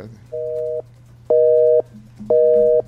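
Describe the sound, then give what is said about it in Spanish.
A telephone busy signal after dialing a number: three steady, evenly spaced electronic tone bursts, each about half a second long, repeating at a quick cadence over a faint low hum on the line, with no one talking. “Cambió el teléfono, Marito Rivera.”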